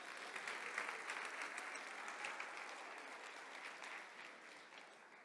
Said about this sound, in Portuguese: Pode aplaudir, é, é bom.